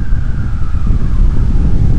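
Steady, loud wind roars and buffets continuously, with heavy low rumbling throughout and a faint, slowly falling whine in the background. No voices are heard.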